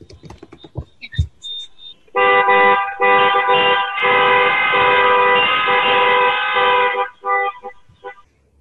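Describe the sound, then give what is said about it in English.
Loud, sustained horns of protesting trucks blare together for several seconds on Constitution Avenue in Washington, D.C., layered and overlapping, with shorter honks and street noise before and after the main blast; truck owners and operators are protesting low freight rates. “Check out those trucks.”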